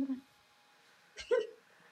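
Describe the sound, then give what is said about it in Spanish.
One sharp sneeze: a burst of breathy noise followed by a short voiced 'choo', coming after a brief vocal sound and a quiet pause. “Tienes tornuda, sí.”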